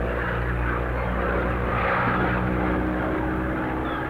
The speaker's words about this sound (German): Hey, er kommt direkt auf uns zu. Er will wohl landen. Wassern heißt das. Ist ja ein Wasserflugzeug. Oh, wenn das nur gut geht.